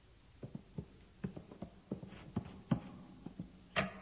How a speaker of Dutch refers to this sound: We horen stappen